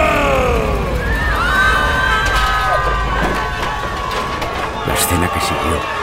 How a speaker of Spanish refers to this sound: Todos los invitados se lanzaron a puertas y ventanas en un acto de puro terror.